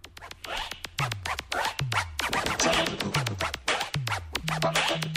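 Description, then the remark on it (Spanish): Rapid DJ scratching on a vinyl record, rubbing the record to the rhythm of the turntables, with sharp back-and-forth zips cut in a steady rhythm over a pulsing low beat with falling bass tones. From the first song to feature scratching on vinyl records. No voices, just the continuous scratch pattern. “Justamente ese es el scratch, el cual raspaba los acetatos al ritmo que marcaba las tornamesas.”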